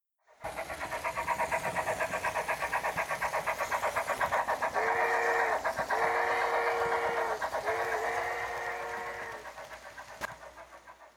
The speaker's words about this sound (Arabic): ركب العجوز والقط الشقي السياره سارت السياره وسارت وسارت